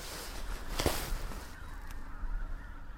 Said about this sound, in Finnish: Siellä tulee haneet. Oho, ja nyt ne tulee takaisinpäin. Hei. Ihan Tätähän me on ollut. Hanhia.